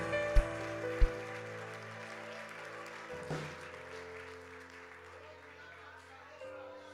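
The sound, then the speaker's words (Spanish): A church audience applauds the Lord in a dense, steady wash of clapping lasting several seconds, with a couple of sharp, louder claps at the start and sustained musical tones underneath. “Dale un aplauso al Señor si puede.”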